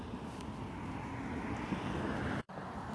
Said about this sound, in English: Sorry, I thought I paused because um, of that car.